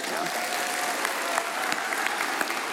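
A round of applause from a gathered crowd: dense, steady clapping that holds an even level for a few seconds, with occasional sharper individual claps standing out, and no talking.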